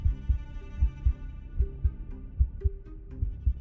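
A steady heartbeat thumps in low, muffled double beats, about five or six lub-dub pairs in a regular rhythm over a faint droning hum, with no voices.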